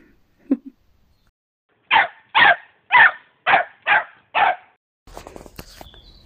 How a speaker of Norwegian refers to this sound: da bjeffer Viking seg inn i sin del av eh, episoden. Viking er en blue merle Amer miniature American shepherd. Han er født 16.1 i 2021. Han er seks måneder gammel straks